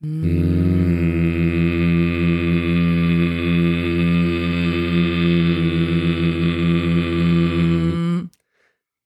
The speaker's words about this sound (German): dann brummen wir einfach ein bisschen ins Mikro rein